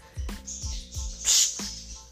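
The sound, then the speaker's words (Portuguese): A small bird chirps in short, high bursts, with one louder, brighter call near the middle, over a few soft low thumps and no talking. “Cala a boca, passarinho maldito.”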